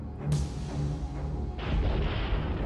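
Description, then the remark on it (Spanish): Thunder from an electric storm: a sharp crack opens into a deep, rolling rumble, then a second loud surge of thunder swells midway and keeps grumbling to the end. No voices. “Por algún motivo, no se sentía como cualquier tormenta eléctrica que hubiera atestiguado.”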